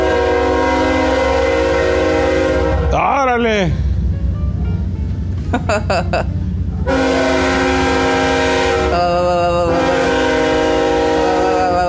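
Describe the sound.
A loud train rumbles past on tracks right beside a home, its horn blaring in long sustained blasts, with a voice briefly exclaiming and laughing over the din.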